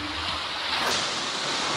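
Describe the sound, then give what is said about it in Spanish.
Loud, continuous roar of strong Pacific ocean surf crashing on Playa Zicatela in Puerto Escondido, Oaxaca, Mexico, with a heavier wave breaking near the middle and no voices. “Llegamos a la playa Cicatela y como podés escuchar, acá las olas rompen con más fuerza y es que este lugar tiene otras condiciones completamente diferentes.”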